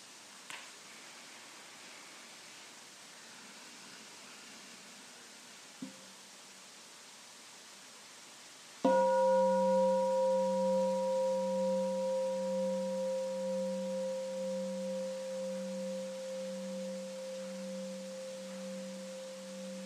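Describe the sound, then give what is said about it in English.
After several seconds of near silence, a bell is struck once and rings on, its clear, layered tone lingering with a slow pulsing waver as it gradually fades. “We hear the sound of the bell.”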